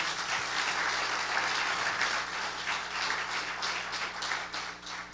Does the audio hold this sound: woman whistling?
no